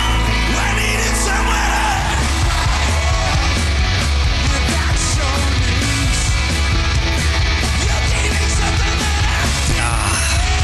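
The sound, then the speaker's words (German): A loud, dense crowd roar with cheering and yelling, sustained throughout, starting over a low steady hum then swelling into a continuous wash of noise; pre-recorded applause played in for a virtual-reality concert in Facebook's metaverse after the Super Bowl, with the band playing before avatars. “Ja, man muss sich aber vorstellen, dieser, dieser ganze Beifall und sowas, das war natürlich wieder eingespielt.”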